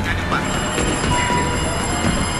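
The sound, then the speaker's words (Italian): A train to Montauk rolls steadily along the rails, a continuous low rumble and rattle with a faint high whine running through it, unbroken throughout. “Ho preso un treno per Montauk.”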